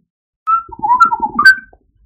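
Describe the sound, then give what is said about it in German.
A person whistles an imitation of R2-D2-like robot beeps: a steady tone, a short warbling run of wavering notes, then a higher closing tone, all fairly loud with no talking. “Daraufhin hörst du zwei lange Pieptöne.”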